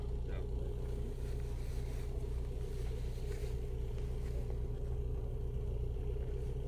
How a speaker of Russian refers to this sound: Сейчас мы находимся на учебном полигоне Центра беспилотных летательных аппаратов. Вот дрон, птичка, которая готовится к взлету.